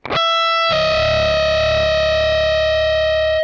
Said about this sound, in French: Et voilà. Et donc on a ce fameux intervalle dissonant avec une note de guitare qui frotte et qui donne une impression de déséquilibre.